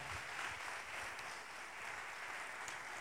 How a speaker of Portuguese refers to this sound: Aplaudo o Senhor por causa dessa palavra.